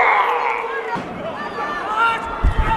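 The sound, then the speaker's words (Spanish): Loud crowd shouting and yelling at a clandestine fight, in an overlapping jumble of raised voices, with a couple of dull thumps near the end. “Estas son las plantas golpeándose, restregándose, la gente está gritando, para, para, para, no puedo oír esto, no, puedo.”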